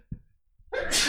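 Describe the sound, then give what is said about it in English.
A single loud sneeze, preceded by a short sharp intake of breath and ending in a bright, explosive burst. “Bless you.”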